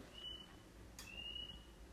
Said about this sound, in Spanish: Ven, ese fue el puto grillo que les digo.